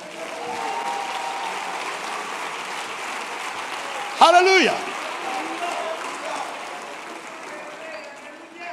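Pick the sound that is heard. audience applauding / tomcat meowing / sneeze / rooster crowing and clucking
audience applauding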